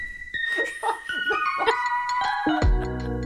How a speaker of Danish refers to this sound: Lad os tage jinglen.